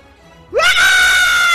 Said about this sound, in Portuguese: Ah, me assustou com esse grito